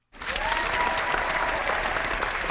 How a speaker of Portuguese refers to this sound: Merece a salva de palmas, correu a São Silvestre com a camiseta do Por Falar em Corrida.